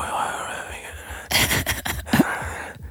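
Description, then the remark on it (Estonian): Breathy whispering in short unvoiced bursts over about a second and a half, preceded by a soft steady hiss and trailing off into quiet. “sosistame seal niimoodi,”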